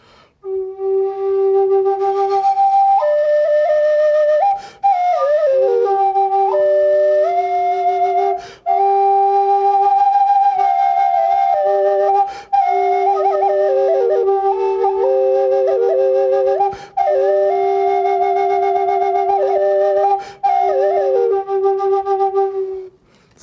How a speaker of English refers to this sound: But this one's a double flute, double A frame, but it has a different kind of tones. But this one here, I particularly, I like this one. I do it for weddings and special occasions.